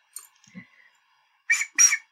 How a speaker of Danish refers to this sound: Ja, det er min fløjte. Jeg kunne ikke finde mit almindelige redskab. Kunne man høre den?